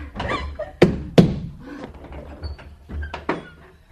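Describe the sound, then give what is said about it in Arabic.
Heavy fists pound on a wooden door as someone demands that it be opened and threatens to break it, with two loud, booming blows standing out among several duller, irregular thuds. There is no talking, just the hollow, resonant knocking. “افتحي افتحي والا كسرت هذه الدفه افتحي يا ساحره لا تريدين فتح الباب”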